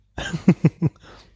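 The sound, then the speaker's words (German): Wet, smacking chewing noises as someone eats licorice: three quick, moist mouth smacks in an uneven rhythm, fairly soft, with faint rustling between them and no talking. “Und du schmatzt auch mehr als ich. Hörst du das?”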